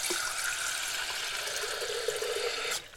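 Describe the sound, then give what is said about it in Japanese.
Hot water pours in a steady, unbroken hissing stream for close to three seconds, bright and fairly loud, then cuts off abruptly near the end; no one speaks. “さてお湯お湯が必要だよ”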